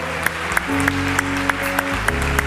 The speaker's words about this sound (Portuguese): Se você crê nisso, dê uma grande salva de palmas em adoração ao Senhor.